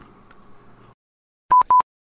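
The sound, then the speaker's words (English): Two loud, identical electronic beeps sound in quick succession, each a short steady tone, following a brief stretch of faint low humming that cuts off into silence. “Okay, beep beep.”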